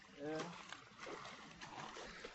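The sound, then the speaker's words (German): Faint, continuous splashing and sloshing of water as a cyclist rides a bicycle through water so deep that the whole front tire is under water, with a person's voice talking softly over the noise. “Es sieht echt so entspannt aus, hier durchs Wasser zu fahren, sonst würde er normal fahren.”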